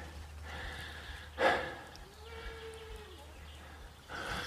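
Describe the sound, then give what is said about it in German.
Goats grazing on the other side of the Elz river bleating out in the open, a couple of wavering calls with one short, sharp cry, then a longer drawn-out bleat, over steady outdoor background noise. “Hier stehen Ziegen.”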